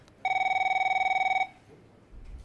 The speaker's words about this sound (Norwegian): The phone rings, the office phone rings.